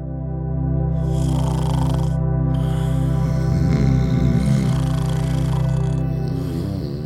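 Loud, deep snoring with a rough, rattling growl, swelling and fading in a few drawn-out breaths with no talking.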